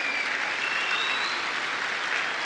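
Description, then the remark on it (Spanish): Loud, sustained audience applause fills the whole stretch, a dense steady wash of many hands clapping with no clear individual beats and no voices standing out. “que les ofrezco un, un fuertísimo aplauso.”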